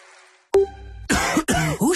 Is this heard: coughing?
yes